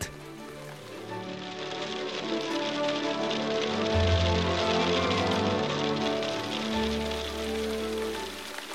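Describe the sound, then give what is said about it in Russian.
Heavy raindrops patter onto a surface during a thunderstorm with lightning, quickly thickening into a dense, hard pelting of hail, steady, swelling slightly in the middle over a low musical drone. “Сперва упало несколько крупных капель, они вроде как обожгли меня. И сразу град.”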